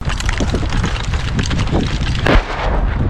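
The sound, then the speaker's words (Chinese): Dense, continuous battlefield gunfire crackles without pause as Ukrainian counteroffensive troops run forward to take a Russian stronghold on the front line, rapid overlapping shots mixed with deep artillery booms, one especially heavy blast standing out partway through. No voices are heard. “乌克兰反攻部队在枪炮声中快跑前进，目标是打下俄军在这条战线上的据点。”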